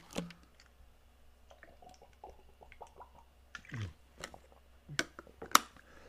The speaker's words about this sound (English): Let me get a swig of water before I finish this off.